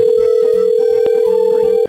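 A loud, steady telephone dial tone drones without a break for nearly two seconds while a call is being placed, with faint low background noise underneath and no one talking.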